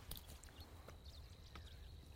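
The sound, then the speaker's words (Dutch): Three sharp, hollow knocks as a wooden clog kicks a spotting scope during birdwatching, landing irregularly over a steady low outdoor rumble with faint high bird whistles. “Oh, daar heb er een tegen Je, hebt, eh, je moet ook niet tegen de scope schoppen met je klompen van je.”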